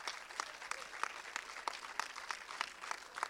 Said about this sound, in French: Vous pouvez effectivement applaudir nos invités.